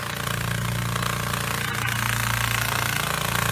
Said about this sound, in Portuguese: Você acabou de ouvir um fenômeno da natureza. Esse é o som de um besouro voando. Eu não sei se você sabia, pelas leis da aerodinâmica, besouros não deveriam voar. Eles têm asas pequenas demais